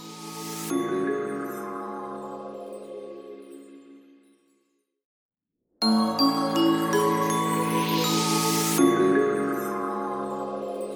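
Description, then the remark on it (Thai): A bright musical radio station jingle leading into an advertisement break plays twice with no talking, each a short burst of chiming, tinkling tones over a steady backing, separated by about a second of silence. “เดี๋ยวเราไปฟังโฆษณาจากสถานีกันก่อน”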